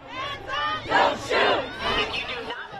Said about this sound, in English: protesters flooded the streets in what's become a sad, angry, and familiar ritual. They chanted, they marched, they yelled at the cops, they held up signs reading Black Lives Matter.